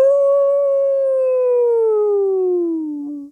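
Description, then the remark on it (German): A person imitates a dog's howl with one long, sustained vocal tone that slowly slides downward in pitch before cutting off, loud with no other sounds. “Lass mich nur einmal für das Eichhörnchen jaulen.”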